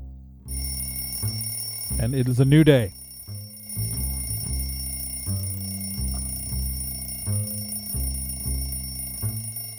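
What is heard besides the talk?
alarm clocks ringing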